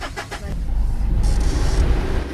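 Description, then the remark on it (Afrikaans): A pickup truck (bakkie) approaches on its way to load sheaves of cut honeybush tea, its deep engine rumble growing a little louder after a brief start and then holding steady, with no voices. “Die bakkie wat aankom is op pad om gerwe gesnyde heuningbostee op te laai wat die oespan pad toe dra”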